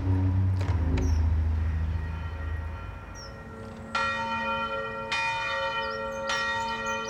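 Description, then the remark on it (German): Church bells ring out on a Sunday from the tower of the nearby Johanneskirche, joined by the bells of the Antoniuskirche, a low droning hum giving way to bright, resonant strikes about a second apart, each tone lingering and overlapping the next. No voices are heard. “Vom Turm der nahen Johanneskirche waren die Glocken zu hören. Ein sonntäglich friedliches Klingen und Dröhnen.”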